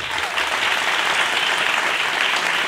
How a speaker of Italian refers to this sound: Applauso.